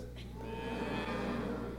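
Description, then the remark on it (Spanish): An audience imitates cattle mooing together, a crowd of voices joining in a long, low moo that overlaps into a sustained droning chorus at steady volume. “Y ese mugido del ganado que oigo. Hagan todos como vacas.”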